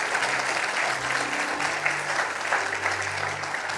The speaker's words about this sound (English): Come on, clap. Let's clap a little bit better than that.